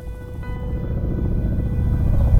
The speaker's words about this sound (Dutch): Opeens hoor ik een bekend geluid. Het geluid van een vliegtuig in de verte.